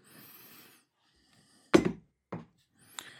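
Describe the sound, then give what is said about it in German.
A few hollow knocks on wood, one louder strike followed by a softer one and a faint tap, spaced irregularly with quiet rustling before them. “Ja, ich hoffe, das Klopfen hat man so halbwegs gehört.”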